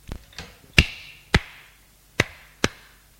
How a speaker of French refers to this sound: Il lui donne quelques tapes sur la figure.